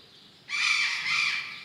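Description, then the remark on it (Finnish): Several Patagonian conures (burrowing parrots) let out loud, harsh squawks that start abruptly and continue raucously for over a second, with no talking. “äänessä nyt enimmäkseen. Meillä on tuommoinen useampi Patagonian aratti tuossa.”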